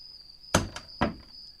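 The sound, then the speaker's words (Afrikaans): A front door is eased shut quietly as someone slips out of a house: a soft thud, a light click, then a second muted knock, over a steady, thin high-pitched chirring in the background. “Hy maak die deur versigtig oop. kyk 'n slag oor sy skouer. Toe glip hy uit en maak die deur toe.”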